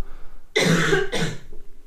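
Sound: coughing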